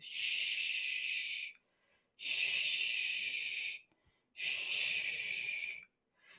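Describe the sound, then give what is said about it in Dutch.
A person makes three long, steady shushing sounds, each about one and a half seconds, separated by brief pauses, a soft rhythmic hush to soothe a baby, made with the mouth directed toward the baby's ear while patting the baby. “En tijdens het kloppen plaats je je mond in de richting van het oor van je kindje en maak je dus eigenlijk een sussend geluid.”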